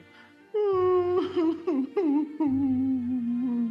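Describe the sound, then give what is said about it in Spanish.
A voice imitates wailing, moaning cries, a crying sound coming from inside the furs wrapping Mog's pack: sustained, pitch-wavering sobs with a few breaks, fairly loud, heard alone without talk. “¿Quién está llorando?”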